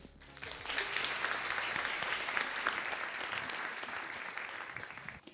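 An audience claps steadily for two guests being introduced, a dense burst of many hands that rises quickly and holds a fairly even loudness for about five seconds before starting to thin out.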